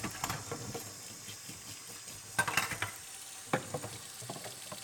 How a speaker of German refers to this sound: Ja, das Kochen macht ein bisschen Lärm.